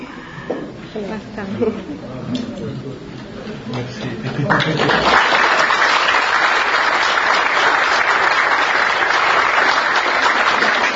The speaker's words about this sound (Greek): Τώρα για ποιο είναι το χειροκρότημα γιατί γερόντισα για τον Άγιο Λεμεσού για μένα και τους πατέρες που ήρθανε